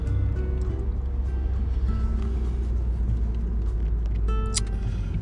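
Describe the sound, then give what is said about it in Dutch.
Cars driving past make a steady, heavy low rumble of engine and road noise that holds at an even loudness throughout, with a brief thin high-pitched squeal near the end and no talking. “Ik moet even een beetje opletten hier met de auto's.”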